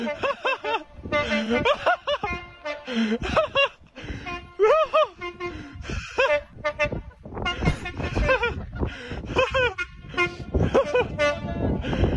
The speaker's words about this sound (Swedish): har lovat att tuta massvis av gånger